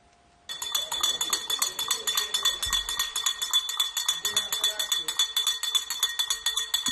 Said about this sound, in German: Erstmals läuten nun im syrischen Homs wieder Glocken.